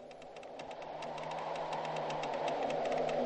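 Tree branches knock against the glass of a small window in a quick, uneven series of light taps, set over a steady rushing wind that slowly grows louder. No one speaks.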